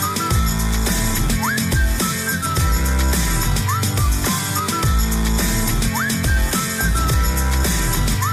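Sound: whistling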